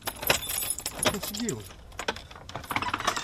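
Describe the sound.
Metallic jangling and clicking of keys as a worker from a key factory fumbles at a stubborn theatre door lock until it opens, in repeated bursts over a few seconds, with a brief murmur of a voice partway through.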